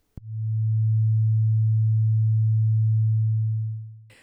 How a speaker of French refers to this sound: Cette boîte en particulier, elle s'appelle oscilloscope. Donc, cette boîte, elle traduit un signal électrique ou magnétique en son sans harmonique, comme ceci.